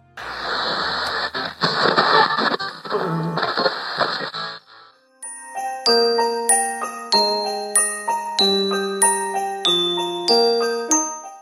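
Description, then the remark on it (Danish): Several seconds of crackling radio static as a father switches the radio to another channel, then Christmas music: a bright, chiming melody of bell-like notes playing steadily at moderate volume, with no voices. “siger faren og slår over på en anden kanal, som spiller julemusik.”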